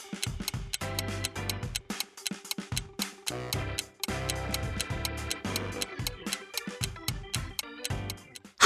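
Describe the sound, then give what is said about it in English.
A countdown clock ticks steadily and crisply over a looping electronic music bed during a 10-second countdown in a quiz round, the sharp regular ticks prominent for several seconds with no voices. “10 seconds on the clock.”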